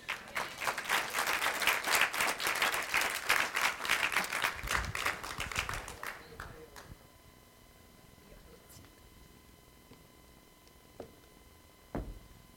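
An audience applauds for the Lord: many hands clapping in a loud, dense burst for about six seconds, then it fades into quiet with a couple of faint knocks.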